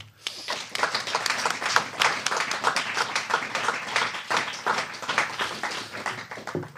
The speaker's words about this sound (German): Und einen warmen Applaus auch für die Lotta Wittmer.